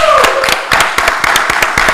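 Loud, steady hand clapping from a small group, sharp claps landing in a quick even rhythm, roughly four per second, with no pause throughout.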